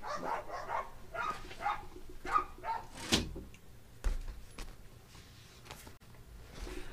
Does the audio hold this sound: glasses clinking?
no